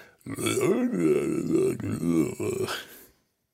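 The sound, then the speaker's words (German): A man voices a drawn-out series of low, throaty grunts and croaks, imitating an alligator person, loud for about three seconds before falling silent. “Wenn wir jetzt Alligator People wären, könnten wir diesen Podcast nicht machen, dann würden wir nur noch äh, äh, äh, grunzen.”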